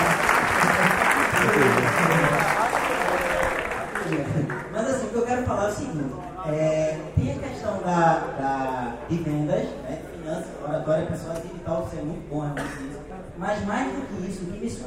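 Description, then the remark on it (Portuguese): An audience breaks into loud, dense clapping that fills the opening few seconds, then quickly fades as people begin talking over the last scattered claps. “Salva de palmas, cara.”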